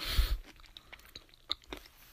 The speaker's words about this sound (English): I literally eat with my mouth open like chew with my mouth open. I'm getting pain- peanut butter all over my pants.